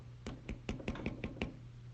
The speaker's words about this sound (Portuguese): Aí a verdade vem e faz to, to, to, né? Na porta da verdade, ó.